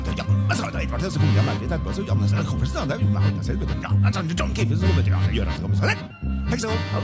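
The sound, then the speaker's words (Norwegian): In a music video, a musician barks and yelps like a dog in short, loud bursts, improvising around a Norwegian folk tune over a busy jazz band with steady bass and drums, the imitation woven rhythmically into the music. “I musikkvideoen kan vi både se og høre … bjeffe i sin improvisasjon rundt et norsk folketone.”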